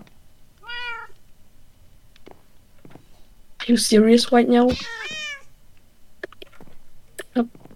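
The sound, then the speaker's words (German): A cat meows: one short, thin meow early on, then a louder, drawn-out run of wavering meows a few seconds later, with a person speaking briefly and some small clicks around it. “Hallo, Katze. Nicht hauen.”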